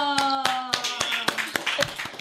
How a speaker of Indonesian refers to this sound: mantap tepuk tangan dulu